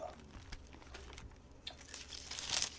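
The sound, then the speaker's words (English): Soft rustling and crinkling of thin scripture pages being shuffled and turned to find Genesis, in a quick irregular flurry that swells into a brighter crisp rustle near the end. “can you hear the shuffling of the leaves?”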